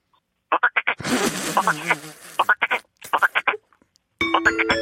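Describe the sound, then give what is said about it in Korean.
Someone imitates a frog as a first, warm-up impression, with quick runs of three or four throaty croaks, broken by a noisy rustling stretch, then a short tonal electronic jingle at the end. “일단 개구리 소리 먼저.”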